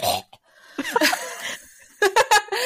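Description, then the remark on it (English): A dog named Michael coughs and hacks in harsh, raspy bursts: a rough, drawn-out wheezy fit, then three quick, sharp coughs in a row. It is fairly loud, with no talking over it. “That is my dog coughing.”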